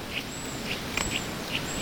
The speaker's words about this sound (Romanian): Pe lângă Târgoviște, pe acolo. Uh-huh. Uite și păsărele. Astea sunt chiar sunete reale da, registrate de da, tine.